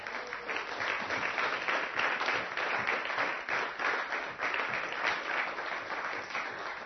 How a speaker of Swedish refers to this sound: så ska vi ska vi ska vi ge Jesus en applåd tycker jag vi gör det